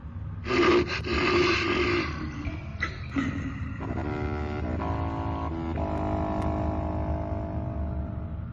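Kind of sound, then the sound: animal, bear growling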